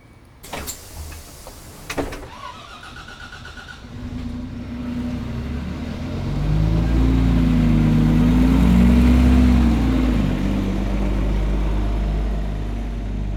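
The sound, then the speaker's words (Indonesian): A couple of sharp clunks and a door sliding shut, then the large engine of a night bus travelling from Surabaya to Jakarta, Indonesia, starts idling low and revs up, its deep rumble rising and swelling loudly as it accelerates away. “penumpang perempuan ingin menempuh perjalanan sendirian dari Surabaya ke Jakarta dengan menggunakan bis malam.”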